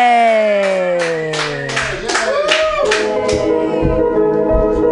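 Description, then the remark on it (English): An audience at a comedy show claps for the first comedian of the night, a burst of many hands slapping together in a lively, fairly loud wash of applause, while a short descending musical tone plays over the start. “All right, everybody, clap your hands in a wild, slappy like motion for your first comedian of the night,”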